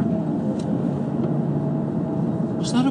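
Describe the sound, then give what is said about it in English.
Steady low engine rumble and road noise from a car in traffic, with a brief rising whine and hiss near the end as it overtakes a bus that is stopping on a corner. “Okay, the bus is gonna stop on a corner? I don't believe it. I gotta overtake this bus.”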